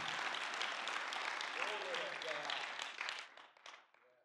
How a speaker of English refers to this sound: Someone clap your hands one more time to Jesus this morning.